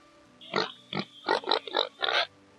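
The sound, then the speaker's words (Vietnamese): A voice makes pig-like grunts while trying to imitate a hen: five short, snorting oinks in quick succession, fairly loud, with no talking around them. “Cũng chưa có giống nữa, vẫn là tiếng ục ịch như heo thôi.”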